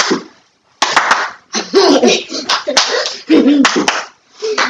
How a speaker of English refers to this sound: I love when I start doing the clapping.